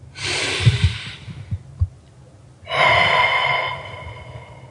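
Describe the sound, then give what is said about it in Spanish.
A deep, airy breath drawn in, a brief pause, then a long, slow breath out, clear with no talking. “Tomar un momento para respirar.”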